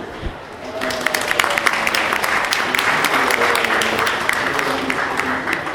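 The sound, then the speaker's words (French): An audience breaks into steady applause to welcome guest comic book scriptwriter Valérie Mangin, many hands clapping in a dense, sustained patter that swells after a brief start and holds at an even loudness throughout. “Donc, premièrement, donc, Valérie Mangin, que vous pouvez applaudir.”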